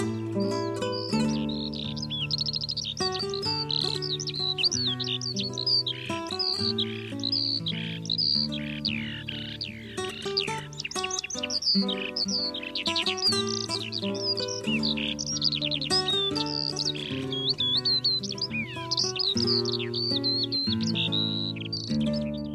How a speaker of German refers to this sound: Das war die Feldlerche.